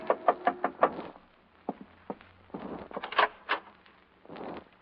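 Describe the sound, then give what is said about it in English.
A quick burst of about five firm knocks on a hotel room door, then a pause and several more scattered, duller thumps and knocks, with no voices. “I was in my hotel room packing when a knock on the door changed my mind again.”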